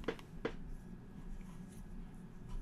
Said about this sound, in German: Jetzt muss ich erstmal heftig in die Tastaturen klammer, kla klappern.